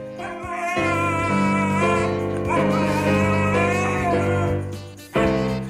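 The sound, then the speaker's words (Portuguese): A dog whimpers in long, wavering high-pitched whines over steady, chord-like tones. The whining is loud and continuous for about five seconds, breaks off briefly, then resumes. “cão de coração partido, pá.”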